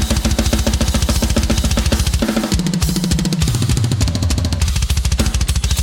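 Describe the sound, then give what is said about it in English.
A loud, dense drum kit recording with rapid, driving kick hits pounding in a steady pattern and sharp snare cracks cutting through, heavy, with no voices. “Like I get awesome. so many comments on the kick and snare.”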